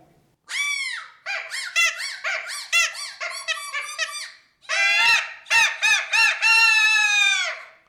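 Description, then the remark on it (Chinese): A suona, kaqiang and jaw harp are played together live on stage before an audience as the 'three sounds' performance, in loud, bright, nasal bursts of wavering notes, broken by short pauses and ending on a long sustained tone, with no talking. “大家刚听到各种不同的声音，就包含着我们的唢呐、我们的卡腔，还有我们的口弦。”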